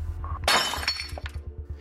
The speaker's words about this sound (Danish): Men hørte jeg virkelig korrekt, blev der kastet en sten igennem mit vindue